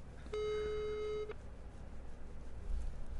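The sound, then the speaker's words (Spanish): A single steady ringback tone from an outgoing phone call, lasting about a second, with a flat mid-pitched hum and harmonics, then fading into quiet background noise. “Oye, ojalá entre la llamada. Vamos a ver. ¡Ay, ah, sí está entrando!”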